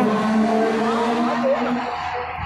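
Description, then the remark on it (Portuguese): The engine of Ayrton Senna's classic Lotus race car, driven by Emerson Fittipaldi, hums steadily at low revs, a droning tone that wavers slightly as the car rolls slowly forward onto the track, with faint background noise around it. “Vai saindo pra pista devagarzinho.”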